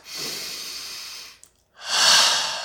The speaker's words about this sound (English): hopefully use less shoulders because I was using shoulders there, and that's emergency breathing.